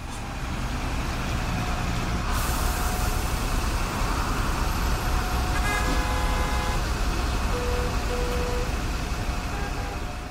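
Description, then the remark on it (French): Dense, steady roar of heavy road traffic with rumbling trucks on the route to the Fréjus road tunnel, broken by several short horn blasts in the middle and toward the end, no voices. “Ce dernier connaît un succès important, notamment auprès des poids”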